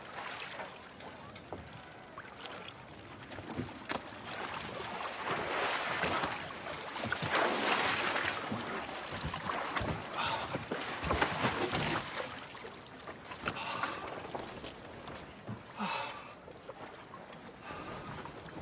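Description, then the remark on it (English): Someone clambers into a small boat to go fishing: scattered knocks and thumps against the hull over a steady wash of sloshing water, with no voices. “You can't just climb into my boat.”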